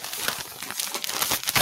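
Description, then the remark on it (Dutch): A heavy bag of Dol Soft Surf Mix powder crinkles and rustles continuously, with dense, irregular plastic crackles and rubs and no talking. “zit in een zak, het, is zwaar.”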